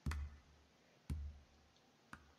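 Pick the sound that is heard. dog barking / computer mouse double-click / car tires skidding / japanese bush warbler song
computer mouse double-click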